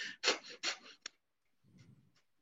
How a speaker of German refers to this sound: bei Kapalbati atmet man sehr schnell und sehr intensiv durch die Nase ein und aus. Also der Rhythmus ungefähr so.